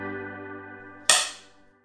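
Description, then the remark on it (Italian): A film clapperboard snaps shut once with a sharp crack, cutting off a steady sustained musical tone and trailing into a brief fading ring. “vi porteremo alla scoperta di tutto quello che accade prima e dopo il battito del Chuck.”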